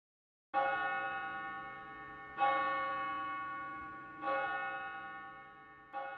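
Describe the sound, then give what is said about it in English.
Four resonant bell chimes from the courthouse clock in Goderich, set to chime every 15 minutes, ring out at a slow, steady pace, each struck tone sustaining and overlapping into the next, loud and clear with no voices present. “presented the courthouse with its clock, set to chime every 15 minutes from 5:55 a.m. to 12:05 a.m., as it still does today.”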